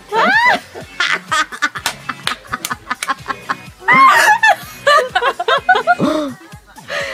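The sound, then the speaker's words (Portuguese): A person does a duck voice, a run of rapid, nasal, quacking bursts with squeaky pitch swoops, fairly loud, with a few brief pauses between phrases. “Aqui vou te mandar a voz de pato.”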